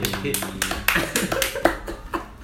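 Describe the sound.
A short round of hand clapping, about eight or nine sharp claps at an uneven pace, with a voice murmuring underneath at the start.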